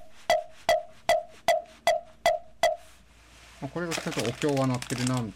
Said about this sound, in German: Das sind alles Sachen für den Hausschrein Butsudan. Hier ist ein Mokogio. Das hört sich so an.